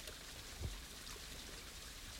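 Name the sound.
water swirling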